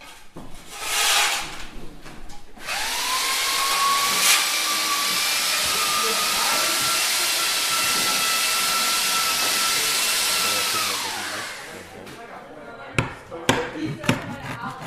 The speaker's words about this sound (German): Es wird gehämmert und geklopft, gesägt und geschüppt. Junge Leute wuseln auf dem Flur herum, einige stehen ins Gespräch vertieft und besprechen mit den Handwerkern, wie sie vorgehen sollen. Kurz, auf Schloss Senden wird intensiv gearbeitet.